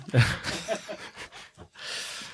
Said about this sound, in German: Ich hab, dachte, ich habe was gehört. Ja, das sind die Zuschauer. So, also. Ähm, Schnarcht schon einer.